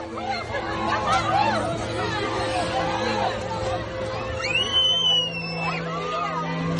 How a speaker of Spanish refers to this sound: Lo que escuchamos son decenas de personas tratando de cruzar la frontera entre Ucrania y Polonia tan solo un día después de que comenzaran los ataques de las tropas rusas.